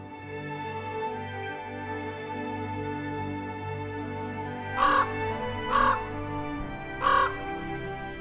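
Three harsh crow caws ring out in the second half, two close together and one a little later, standing out loudly above a steady, humming tonal background that runs throughout.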